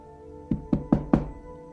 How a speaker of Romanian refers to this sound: Apocalipsa 3:20 spune Isus spune, iată, eu stau la ușă și bat.